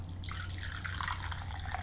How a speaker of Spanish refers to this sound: Acabado de salir de la cafetera muy caliente, eh, echando humo, así que lo pongo en la taza, lo dejo refrescarse unos breves segundos